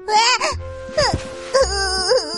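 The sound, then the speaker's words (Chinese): Loud, theatrical crying from the cactus character in a children's story, who plops down on the ground: a voice wails in three drawn-out bursts with rising and falling pitch, sobbing and moaning without words, like an acted cry of distress. “仙人掌一屁股坐在地上，大声哭了起来。”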